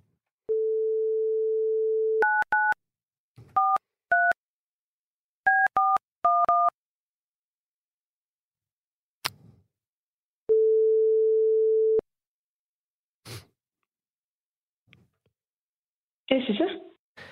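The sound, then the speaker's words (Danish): A steady dial tone gives way to a quick run of keypad touch-tones, a few clicks, then a single long ringing tone on the phone line, ending in a brief burst of noise as the call connects; a call placed from the Radio 4 program Folkedomstolen. “Jeg ringer lige.”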